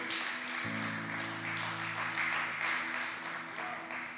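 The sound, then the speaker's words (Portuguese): An audience applauds for Jesus in a steady, dense wash of clapping for about four seconds, while low sustained keyboard chords hum underneath. “Você pode dar um aplauso forte para Jesus?”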